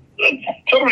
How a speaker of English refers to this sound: phones breaking up a little bit. Can you guys hear the phones good tonight, or is it just me?